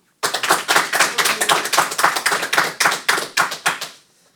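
An audience applauds for about four seconds, a dense, steady patter of many hands clapping at once, fairly loud, then quickly fading out. The public claps as an applause meter to vote for a contestant's joke in a comedy qualifying round. No one speaks.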